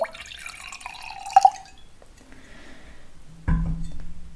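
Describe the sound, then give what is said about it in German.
Wine trickles and drips into a glass, with a short gurgling pour and a light clink, followed by a brief lower rumble near the end; fairly quiet, no talking. “Ich schenke schon mal ein Glas Wein ein.”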